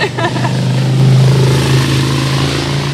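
A motor engine drones loudly, holding a low, steady pitch for the whole stretch with only slight rises and dips, like an idling rev.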